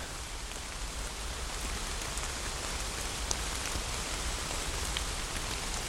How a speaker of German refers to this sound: Ah, ja, das ist diese klare, belebende Luft im Teutoburger Wald, dieses Plätschern, der perfekte Sound zum Runterkommen, könnte ich mir auch wunderbar zum Einschlafen vorstellen. Hätte nur etwas Angst, dass ich danach das Bett nass mache.